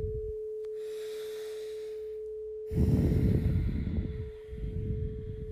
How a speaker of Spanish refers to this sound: Tomamos una última respiración.